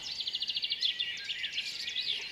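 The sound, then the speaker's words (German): Quiet outdoor dawn ambience at 5 a.m. on a Sunday morning in front of a house door, filled with birdsong: a rapid trill of high chirps at the start, then overlapping twittering calls from a few birds, with no voices. “Einen Sonntagmorgen um 5 Uhr vor der Haustür.”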